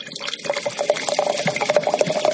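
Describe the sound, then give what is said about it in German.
White wine being poured into a glass, a steady gurgling trickle with a rising tonal ring as the glass fills, no one talking over it. “Jetzt habe ich eine kleine Weißwein schon.”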